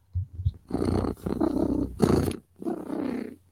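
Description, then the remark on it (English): A person imitates a cat's purr: a raspy, rumbling voice purring in a few drawn-out bursts separated by short breaths, with no other talking. “I'm a happy girl when I'm purring.”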